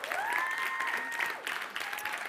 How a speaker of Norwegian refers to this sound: Ja, veldig bra. Så vi kan gi han Hanna en applaus.